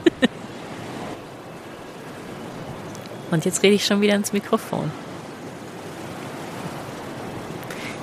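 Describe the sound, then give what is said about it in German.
A steady, hissing wash of ocean surf breaking on the shore fills the whole recording, with a voice speaking briefly over it partway through. “So, ich werde jetzt noch ein bisschen den Wolken lauschen, den Wolken lauschen, den Wolken lauschen und mir die Wellen angucken.”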